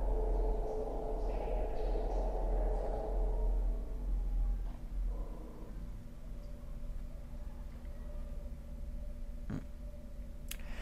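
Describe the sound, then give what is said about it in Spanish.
A female dog's low, rumbling growl, heard at 5:18 AM in La Plata, holds steady for about four seconds, then fades into a quiet background hum broken by a single sharp click near the end. “5.18 AM, La Plata, aviso, el rugido es de mi perra, lo raro son los, los demás ruidos qué ruidos?”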